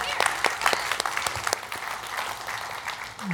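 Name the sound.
audience clapping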